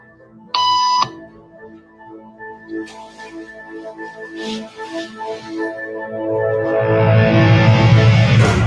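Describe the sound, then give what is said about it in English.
A single loud electronic beep, a tone used as a cue to stand up in a hidden camera conformity experiment, sounds early and stops abruptly, followed by quiet background noise with soft rustles and a low rumble that swells toward the end. “After just three beeps, and without knowing why she's doing it, this woman is now conforming perfectly to the group.”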